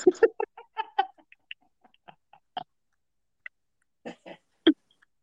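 A goose honks repeatedly in a rapid, uneven series of nasal calls, with a couple of louder honks near the end, close by and with no talking.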